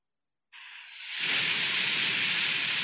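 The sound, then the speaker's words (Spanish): After a brief silence, a steady pink noise rushes in, thin and hissy at first, then quickly filling out into a full, constant wash that holds evenly to the end, with no voices. “Porque es la versión gasolina del ruido rosa.”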